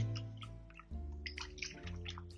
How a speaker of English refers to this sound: First mix. So what I'm gonna do is I'm going to just break up this starter that's floating in my water by hand